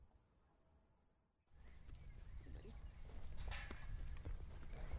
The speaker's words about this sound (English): gently guides her cows towards the pasture gate. She moves slowly, circling around them step by step, eyes down.